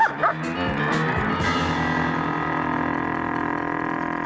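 A huge dog barks a few quick, loud times at the start as it chases burglars out of a house, then a sustained droning tone takes over and rings on to the end.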